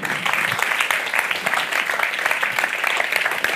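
A crowd applauds steadily, a dense, sustained patter of many hands clapping at close range with no pauses, filling the whole stretch.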